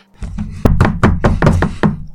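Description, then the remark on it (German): Firm, determined knocking on the wooden door of a family's house, about six solid raps in a steady rhythm, loud with a low, hollow thud, no voices. “gemeinsam fanden sie sich am Haus der Familie Alice ein und klopften entschlossen an die Tür”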